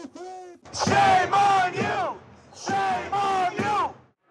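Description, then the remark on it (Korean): A protest crowd in the United States chants a short, loud slogan in unison, shouting the same three-beat phrase twice with a brief pause between the repetitions. “미국이 이스라엘 편에 섰다는 이유로 미국에서조차 규탄 시위가 확산하고 있습니다.”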